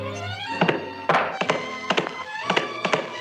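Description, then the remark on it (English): Cardboard boxes being stacked up to raise a newspaper closer to a light: a run of about seven dull, hollow thunks at an uneven pace, with a brief scraping shuffle between them and no voices. “Here, give me a hand stacking up these boxes.”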